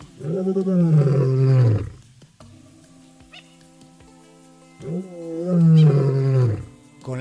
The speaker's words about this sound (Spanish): el rugido del león se puede escuchar a 8 kilómetros de distancia. El rugido es su forma de comunicarse.